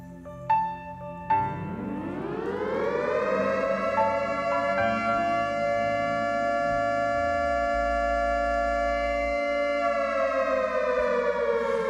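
A loud alert siren winds up from low to a high, steady wail and holds it continuously, after a couple of short clicks at the start. No one speaks.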